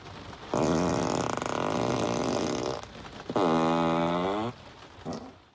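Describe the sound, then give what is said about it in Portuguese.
Two loud, buzzy fart sound effects from a Tesla electric car: a long sustained blast, then a shorter one whose pitch sags and wobbles, with no talking. “Ok, Tesla fart sound.”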